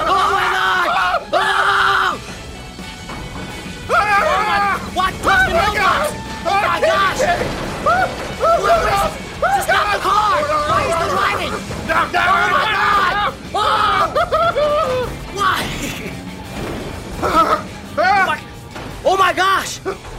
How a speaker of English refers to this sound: They scream in terror. Ah! Oh! Ah! Ah!